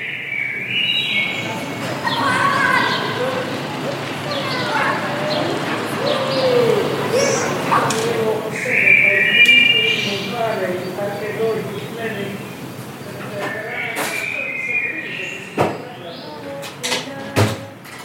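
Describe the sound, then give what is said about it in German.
Steady murmur of many quiet voices, with dishes and cutlery clinking now and then, and a few sharper clatters near the end. “Also es ist Tellerklappern, glaube ich, und leise Gespräche.”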